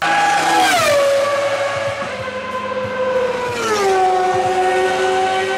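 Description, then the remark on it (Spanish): A high-pitched Formula 1 race car engine screams loudly, its pitch dropping in two sharp downshifts as it passes by, with a steady whine and no voices. “Entonces, son factores que, incluso si no estás cansado o no te estás esforzando mucho, pueden hacer que con un simple trote tu corazón se ponga como motor de coche de Fórmula 1.”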